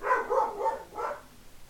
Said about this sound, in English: So yeah, but that dog's gonna be a cameo maker this entire time.